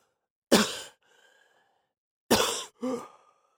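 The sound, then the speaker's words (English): Ragged coughing, three harsh bursts with a gasping breath trailing after the first, heard alone without any talking. “a series of ragged coughs and gasping breaths brought Yanef back to awareness”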